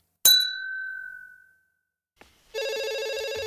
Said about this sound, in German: Telefon. Nee, letztes Mal bin ich rangegangen. Jetzt gehst du.